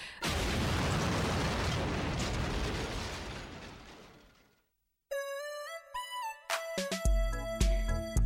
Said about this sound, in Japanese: 何これえ待って私だって最後これ確実に爆発したよね